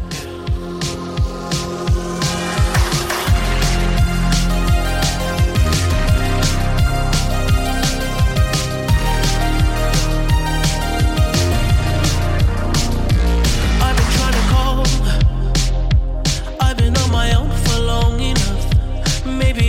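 A dream pop song, the second single from an album, plays for about twenty seconds, dense and steady, with a driving low bass line, regular beats and layered shimmering synth textures, loud with no vocals standing out.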